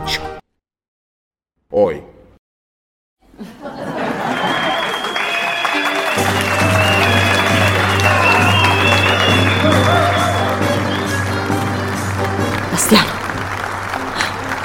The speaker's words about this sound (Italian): La scena è piaciuta. Vieni con me, andiamo a prenderci gli applausi.